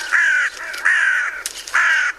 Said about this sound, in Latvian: Nu, kā nu nebūs dusmīgs, ja visu nakti jābaidās no ūpja, nu, dienā vārnas sajūtas valdnieces un pamanījušas tēlu, kurš atgādina šo nakts murgu metas tam virsū.